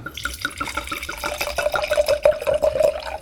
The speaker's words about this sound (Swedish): Eh, jag tänkte vi börjar väl hälla upp lite vin och så får vi se om du kan gissa färgen. Ja. Eh, genom att bara lyssna.